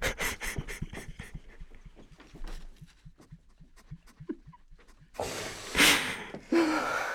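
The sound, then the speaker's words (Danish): A run of quick, rhythmic breaths, like panting, fades to quieter huffs before a few louder, longer rushes of air near the end. No speech. “Tag lige nogle indåndinger.”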